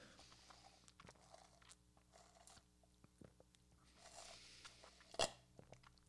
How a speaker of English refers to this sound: I'll take a sip of my smoothie.